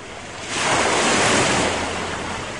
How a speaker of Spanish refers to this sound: Mientras tanto, las olas seguían golpeando al barquito.